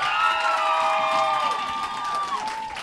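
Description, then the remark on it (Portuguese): A crowd at an event at Happy Burger cheers loudly and continuously, with high-pitched whistles and screams sliding across the steady roar of voices for the whole stretch. “Faz um barulho aí da hora pro …. Barulho, gente!”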